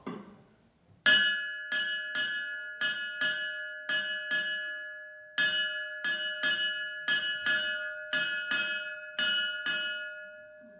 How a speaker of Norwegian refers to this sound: Og klokka henger jo her. Den uh, må du jo nesten høre lyden på. Dette er jo ifra antakeligvis noe tidlig ifra, etter 1200.